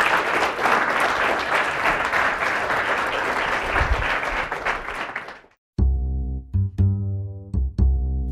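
An audience applauds steadily for about five seconds, a dense wash of clapping that stops abruptly, followed by a few sustained, harmonic musical tones.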